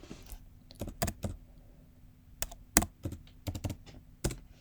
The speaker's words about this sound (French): Vous devez entendre le bruit de mon clavier pendant que j'enregistre.